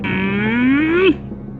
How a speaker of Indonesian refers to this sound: Itu adalah suara dari jawaban yang salah.